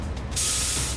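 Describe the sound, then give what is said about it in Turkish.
A garbage truck's hydraulic compactor lets out a sudden, loud hiss of releasing air that holds steady to the end, over a low engine rumble, as the huge truck stops to load garbage on a quiet street at night. “Bir de keşke önümüze şu çöp kamyonu çıkmasaydı.”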